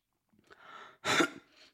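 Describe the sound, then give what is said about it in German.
A quick breath in, then one loud, forceful phlegmy cough bringing up mucus, trailing off into a short breathy rasp. No one speaks. “Boah, hey, Bro, kennst du das, wenn man so hustet und dann kommt doch dieser Schleim raus?”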